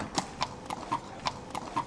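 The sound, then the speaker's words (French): Horse hooves clip-clop in a steady, even rhythm, about eight crisp hollow knocks in two seconds, moderately loud, with no voices. “Je n'y vais pas à cheval.”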